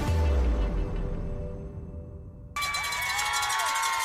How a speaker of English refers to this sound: The injured player on the field for the Handley Tigers, as you hear the crowd erupt.